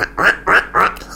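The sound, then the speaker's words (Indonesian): A person imitates a duck with three loud, nasal quacks in an even rhythm, each about a quarter second long with short gaps between, while showing a crying child a duck made from paper. “Ui, aku bebek, aku mau bermain-main.”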